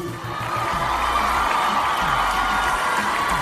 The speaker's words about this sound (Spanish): Aplauso para nuestro presidente